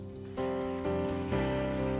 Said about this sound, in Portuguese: Deus seja louvado. Amém. E amém. Vamos aplaudir ao Deus.